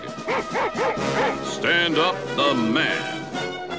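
A dog barks in a quick run of four or five sharp yaps, then breaks into longer, drawn-out whining barks that rise and fall, loud and with no talking.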